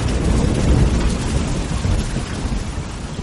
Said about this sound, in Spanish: La lluvia repiqueteaba sobre el suelo atravesando a Kira.